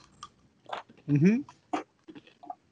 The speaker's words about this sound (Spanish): Y tú tragando, masticando.